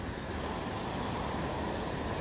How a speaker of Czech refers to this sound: Teď zrovna vidím, teď jsme u Rožnovské eh, Bečvy, vidíte přepad, že to, tak to krásně hučí.